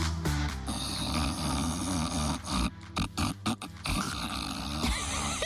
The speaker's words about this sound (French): C'est qui ronfle vachement bien, mais arrête s'il te plaît, c'est trop brillant. Je ronfle pas, je reste que je suis en Harley Davidson.